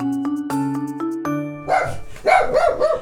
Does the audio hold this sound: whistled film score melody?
no